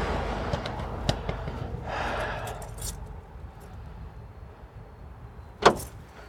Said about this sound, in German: Und ich sollte vielleicht auch Auto abschließen.